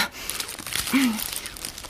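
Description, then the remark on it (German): Continuous crinkling and rustling of a bag of tomatoes being unwrapped, with scattered crisp crackles throughout and a brief low vocal murmur midway. “Hier hast du die Tüte.”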